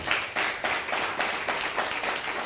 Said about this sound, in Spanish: Pues Baruch Hashem, vamos a dar un fuerte aplauso a toda la comunidad. Baruch Hashem. Que se escuche bien fuerte.